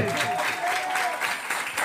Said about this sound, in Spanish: La alabanza a Dios nunca pasa de moda. Dele palmas a Dios entonces.